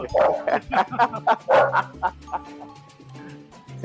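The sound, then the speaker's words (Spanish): A small female dog barks and yips in quick, excited bursts, loud, with faint talking underneath between the barks. “Que, saludes desde la perrita. Eso oigo, sí.”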